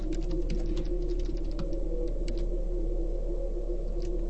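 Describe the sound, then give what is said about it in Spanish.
Rapid, irregular clicking of keys on a computer keyboard as someone types a question to post on Facebook, with a steady low hum underneath and no voices. “En este momento estoy escribiendo.”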